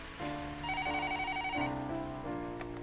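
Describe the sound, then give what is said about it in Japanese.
A telephone rings on a Tuesday of cold winter rain, with an electronic, melodic tone, shifting through a few steady pitches in a continuous pattern. It sounds fairly loud, with no one talking over it. “その電話は冬の冷たい雨が降る火曜日にかかってきた”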